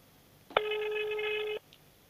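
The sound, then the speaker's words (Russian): A single steady electronic telephone ring tone of an unanswered call sounds for about one second, starting with a click and cutting off abruptly, over a faint background hiss with no talking. “У них ни один телефон не отвечает.”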